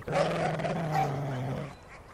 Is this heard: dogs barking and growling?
yes